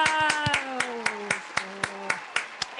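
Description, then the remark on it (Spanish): Hands clap in a steady, brisk rhythm, about a dozen sharp claps in under three seconds, while a voice holds a long, gradually falling cheer through the first half. “Así que aplausos.”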